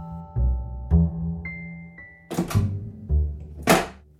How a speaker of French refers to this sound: Les deux enfants venaient de refermer la porte de la chambre de Mélissa.